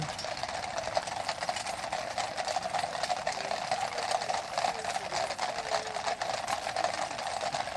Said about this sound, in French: Là, ils sont en train d'arriver, des soldats de la garde montée. Ils sont en train de longer le flanc du palais de Buckingham du côté du parc royal de Green Park. Je vous laisse écouter les sabots sur le bitume.